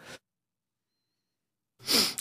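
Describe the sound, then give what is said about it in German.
A single loud, harsh cough bursts out after a stretch of silence, following a brief breathy sound at the start. No one speaks. “So, ich muss hier kurz meinem Husten.”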